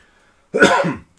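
A single sharp sneeze bursts out, abrupt and loud, lasting about half a second before quiet returns.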